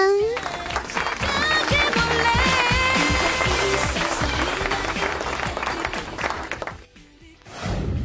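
Sustained clapping from a crowd, loud and dense, with cheering and a rhythmic low thump underneath; it carries for about seven seconds before dropping off abruptly, then briefly returns.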